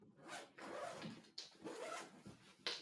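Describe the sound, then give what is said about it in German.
The zipper of a guitar case is pulled open in several long, rasping strokes to unpack a guitar, fairly loud, with short pauses between pulls. No one speaks. “Jetzt, jetzt habe ich total nicht gehört, was du gesagt hast, weil ich an die Gitarre auspacken möchte.”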